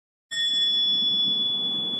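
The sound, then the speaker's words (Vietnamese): A single wake-up strike on a Buddhist mindfulness bell, announcing to everyone that the bell will sound, rings out clearly and sustains a steady shimmering tone with no decay over two seconds, above a soft low room hum. “thỉnh một cái tiếng gọi là tiếng nhấp hay là tiếng thức, thức chúa và báo hiệu cho mọi người biết rằng sẽ có tiếng chuông và sau khi mà nhắc rồi đó thì mình phải để cho người ta có cái giờ để chuẩn bị thanh tâm mà đón nhận tiếng chuông.”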